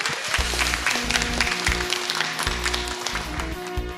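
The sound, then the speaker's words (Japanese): An audience applauds steadily for about four seconds after an IR presentation for Hoshino Resorts REIT, a dense, even crackle of many hands clapping at once, fairly loud throughout, with some low sustained tones running underneath. “ここまでは星野リゾートリート投資法人 IR プレゼン株式会社星野リゾートアセットマネジメント代表取締役社長秋元健二さんでしたもう一度大きな拍手をお願いいたします”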